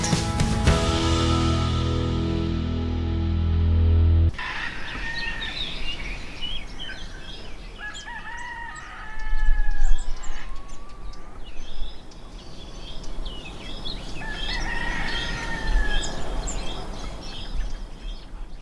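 After a few seconds of music, an outdoor ambience takes over at sunrise on a finca terrace on La Palma in the Canary Islands, with many birds calling and chirping, some clear whistles standing out over a steady background hum.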